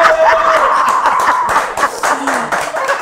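A small group claps steadily for about three seconds, dense and fairly loud throughout, with a few voices and laughs mixed in beneath the applause, applauding singers who have just performed.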